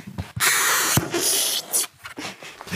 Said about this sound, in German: Wenn man so mit dem Fingernagel über so ein ganz besonderes Papier streicht, dann hört sich das so an.